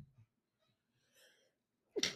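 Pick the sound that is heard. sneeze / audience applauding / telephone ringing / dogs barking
sneeze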